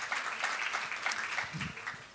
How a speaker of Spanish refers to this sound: Eh, vaya este aplauso por eh, la, que está poniendo las escrituras, que yo sé que hoy la estoy forzando, ¿vale? Un aplauso. Gracias, lo estás haciendo fenomenal.